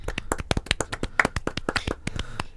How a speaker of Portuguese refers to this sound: Pá, palmas para o Bracali, vamos lá. Pá, umas palminhas. Por favor.